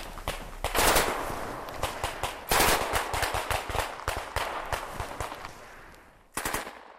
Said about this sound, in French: Rapidement, les coups retentissent de toutes parts.